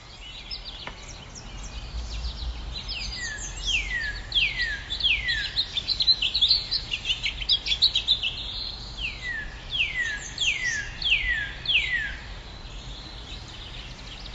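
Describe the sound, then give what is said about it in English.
A northern cardinal by a stream sings two phrases of repeated, loud, clear downslurred whistles, each series speeding slightly, over a soft steady outdoor hum with no voices. “And as I was packing up my gear to head for home, a northern cardinal decided to stop by.”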